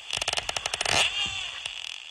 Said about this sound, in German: So klingt es, wenn ein Schweinswal auf der Jagd ist oder einfach mit Artgenossen klönt.